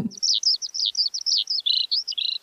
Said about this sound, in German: Ja, Lerchen gibt es natürlich auch hier im Rheingau. Hör mal.